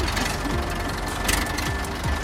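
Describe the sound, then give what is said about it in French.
An old tractor engine knocks steadily while driving in a field, a loud, continuous rhythmic chugging with a rough, clattering texture and no voices. “Ça dépend des tracteurs, c'est un vieux tracteur.”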